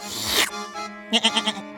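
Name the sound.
goat bleating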